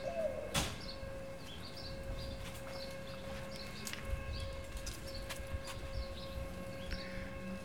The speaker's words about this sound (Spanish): Allá se escuchan enfrente al Versalles sobre el adebollado. Se escuchan los pájaros, el eco de los pájaros.